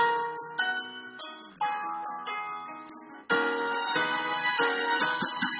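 A bright, cheerful electronic chime melody plays on its own like a station departure tune, with quick bell-like notes in a steady rhythm that swells fuller and louder about halfway through.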